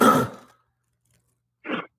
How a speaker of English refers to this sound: I wanted him to cough that out. It sounded like there was something stuck in there.